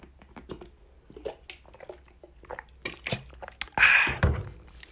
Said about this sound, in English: hold up let me let me just get a sip of this h2o